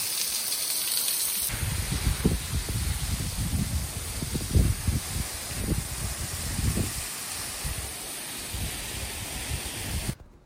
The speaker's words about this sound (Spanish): Miren, aquí uno está viendo el paisaje y de repente, ¡tarán! Una cascada que cae aquí en medio de la calle. Miren qué padre.